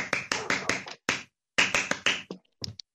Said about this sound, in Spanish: Un youtuber y streamer que admiro muy personalmente. Con ustedes, Demen JG. Un aplauso, por favor.